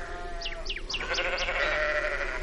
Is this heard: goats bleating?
yes